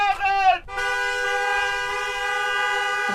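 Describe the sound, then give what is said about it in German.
Several car horns honk together at an IG Metall union protest car convoy of about 1400 vehicles with red IG Metall flags on the car windows, a short burst of overlapping toots followed by a long, steady sustained blare, loud. “Rote IG Metallflaggen wehen an den Autoscheiben, ein Chor aus Autohupen.”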